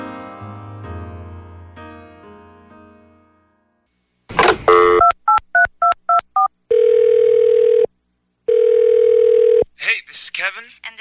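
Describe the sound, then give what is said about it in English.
After music fades out, a brief handset clatter leads into a quick run of six touch-tone dialing beeps, then two long, loud, steady telephone rings with a short pause between them, before a voicemail greeting answers. “We can't get to the phone right now. So please leave a message after the beep.”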